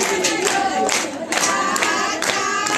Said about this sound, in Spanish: Espectacular la defensiva. Levanta el graderío. Qué impresionante la defensiva. Guante volteado toda la vuelta. Cruza el diamante. Y levanta a la gente con el aplauso. Miren ustedes.